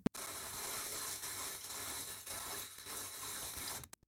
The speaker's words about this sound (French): mais qui sont des vidéos de bruit de la forêt ou de bruit de la pluie la nuit, etc. Je vais vous en faire écouter une.